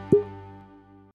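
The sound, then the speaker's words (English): A single hollow pop as the cork is pulled from a bottle of Four Roses Small Batch bourbon, fairly loud, followed by a brief resonant ring that fades out. No one speaks. “Opening the bottle.”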